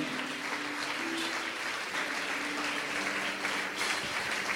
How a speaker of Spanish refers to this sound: Dale un aplauso a Jesucristo el Rey. Amén.